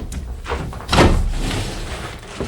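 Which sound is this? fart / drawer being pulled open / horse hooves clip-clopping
drawer being pulled open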